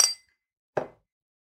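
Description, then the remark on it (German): Two short glassy clinks about three quarters of a second apart, the first bright and ringing, the second duller and lower, as wine glasses are set down on a hard surface. “Man stellt keine Weingläser ab.”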